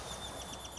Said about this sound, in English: And you can probably hear that the sound quality is different today. You can probably hear the birds chirping in the background and the waves slowly rolling in the shore